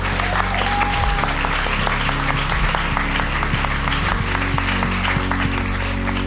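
A live audience applauds steadily, a dense, continuous wash of clapping that holds at an even loudness throughout, with faint voices mixed in beneath it.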